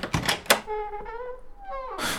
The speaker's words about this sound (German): Wir standen an der Tür der Kajüte. Ich legte mein Ohr an die Tür und lauschte, es war nichts zu hören. Ich machte auf.